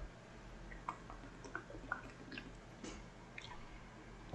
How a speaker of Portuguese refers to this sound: Peraí, vou tomar um golinho de água.